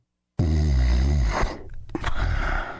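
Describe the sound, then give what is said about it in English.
A man snores loudly: one long, rumbling, throaty inhale followed by a breathy snort and a raspy exhale, with no talking. “That's the sound of a man guarding his home around the clock.”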